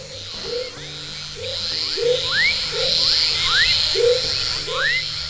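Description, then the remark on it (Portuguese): A dense chorus of frogs calling together, with a steady high trill underneath, rising chirps and low croaks repeating roughly once a second, filling the night air without any voices. “Na hora que os sapos cantam juntos, eles ficam parecendo uma orquestra mesmo.”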